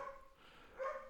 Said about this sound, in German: Sorry, man hört wahrscheinlich meinen Hund gerade im Hintergrund. Oh, ist das süß. Tut mir leid.